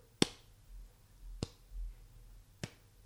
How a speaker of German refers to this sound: Leute, die so einen Schlagerklatscher machen? Die, ja. Die klatschen nicht so, ich mach's mal eben leise vor, die machen die klatschen nicht so, sondern so.